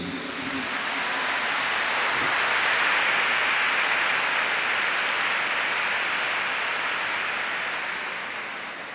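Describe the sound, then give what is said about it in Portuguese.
A crowd applauds the Lord for about nine seconds in a dense, steady wash of clapping that swells early, holds loud, then gradually tapers off. No voices come through. “Aplaudamos o Senhor por isso.”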